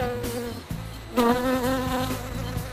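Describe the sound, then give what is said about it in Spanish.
A native bee buzzes, a steady droning hum whose pitch wavers and then rises and grows louder partway through, continuing without any voices. “A todo esto, la abeja de la abeja nativa.”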